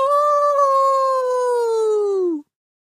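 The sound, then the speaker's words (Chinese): A voice imitates a snow monster raising its head and letting out a long roar: one loud, sustained howling cry, steady in pitch for over two seconds, sliding slightly lower before stopping abruptly. “说完，这只雪人怪抬起了头，又长长的大吼了一声”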